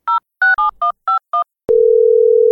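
telephone keypad dialing tones

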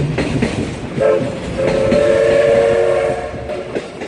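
train running with horn

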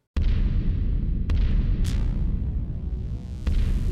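explosion sound effect

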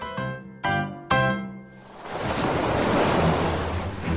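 ocean waves

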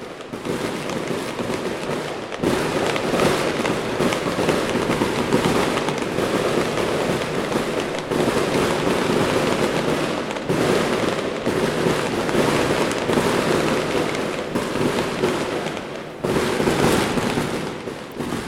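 fireworks exploding

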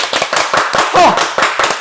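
audience applause

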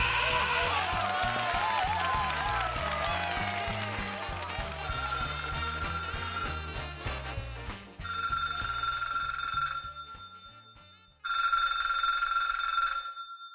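telephone ringing

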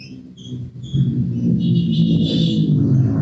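motorcycle passing outside

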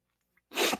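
sneeze

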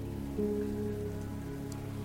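light rain drizzle

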